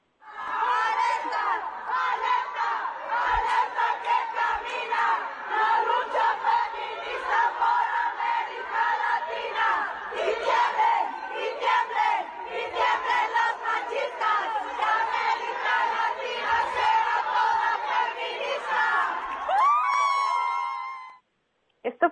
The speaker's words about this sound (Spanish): al interior del Congreso del Estado, unas celebrando, otros cuestionando eh, bastante fuerte gritos hacia las legisladoras y hacia las propias activistas, pero vamos a escuchar pues cómo eh, se dio la celebración al interior del Congreso.